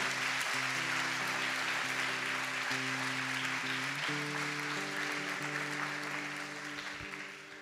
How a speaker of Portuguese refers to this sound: Dá um salve de palmas para Jesus, amado.